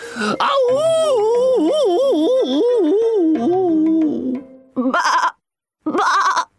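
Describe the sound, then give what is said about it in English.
A sheep bleats loudly: one long, wavering, quavering cry, then two short bleats after brief pauses. “Just then, the big bad wolf heard the bleating of sheep.”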